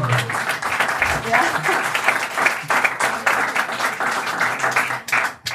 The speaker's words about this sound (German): Applaus.